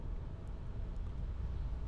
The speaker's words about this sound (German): Ja. Ja, wir sind im Auto am Aufnehmen.